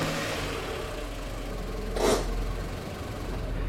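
A car engine runs with a steady, low rumble as a car is driven into a rented garage, broken by a short burst of hissing noise partway through, with no voices.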